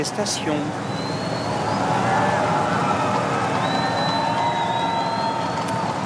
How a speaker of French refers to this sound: Écoutez cette ambiance, écoutons le son autour du président de la République chaque année, on l'observait sous le président Sarkozy, le président Hollande, le président Macron, il y a ce mélange d'applaudissements, quelquefois de contestation.